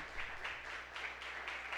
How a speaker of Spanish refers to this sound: Dele un aplauso a Cristo, mi hermano.